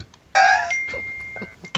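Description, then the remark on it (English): A kitchen appliance's electronic chime: a bright, loud two-note tone followed by a single high beep that holds steady for about a second, with no one talking. “Somebody's finished making something. I heard it.”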